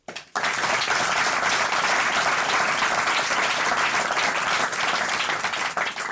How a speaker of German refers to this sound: Ihr Applaus.